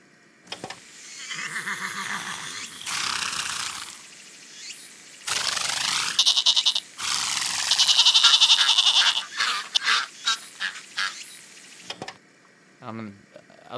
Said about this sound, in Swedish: alltså, det är ju bara djur som låter. ja, men hur ofta hör du djur prata med varandra i radio? Alltså, det här är vi, fast alltså, det är djur som poddar.